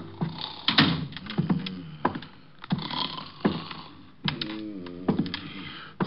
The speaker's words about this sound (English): From the sounds he was making, he was either sleeping or gargling with molasses.